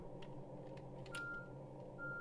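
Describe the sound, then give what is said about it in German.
A bus's engine rumbles steadily as it maneuvers, while two sustained electronic reversing beeps sound, spaced apart. No one speaks. “Jetzt kann ich noch rangieren mit dem Bus.”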